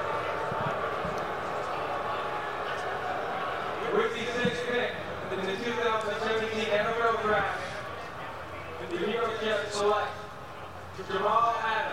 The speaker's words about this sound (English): Let's hear the Jet right fans boo now. Oh, listen to those Jet fans.